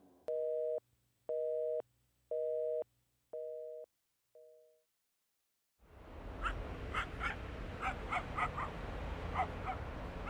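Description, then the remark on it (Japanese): A phone line's busy tone beeps several times and cuts off, then an open outdoor ambience of a busy park on a weekday evening swells up, with a dog barking in short, repeated yaps as people pass through walking their dogs. “犬の散歩でそこを通過するもの子供の求めに応じてここに連れ出された感じの母親肩を寄せ合うカップルなど”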